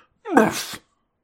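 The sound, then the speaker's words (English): A single short cry of pain from outside, a sharp, breathy yelp that rises and then trails off within about half a second, with silence on either side. “Ah, it was just an exclamation of pain it didn't sound.”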